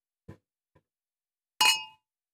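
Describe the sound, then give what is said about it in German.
Two glasses of lightly sparkling grape juice clink together once in a toast after Christmas, a bright chime that rings briefly and fades, after a couple of soft, muffled knocks. No one speaks. “Zum Wohl, lieber Jonathan und äh, frohe Weihnachten nachträglich.”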